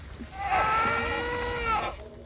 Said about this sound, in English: about 300 goats are spread out along the foothills and steep ridges of the Verdugo Mountains